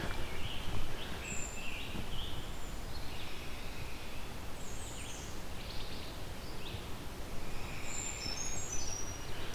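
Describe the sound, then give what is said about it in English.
High-pitched bird song drifts in as scattered, thin, short notes over a steady outdoor hiss of rustling background noise. No one speaks. “But they're also quite loud when they do sing.”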